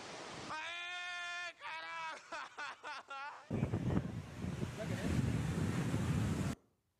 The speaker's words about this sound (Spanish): Olha a sequência, olha o tamanho da onda chegando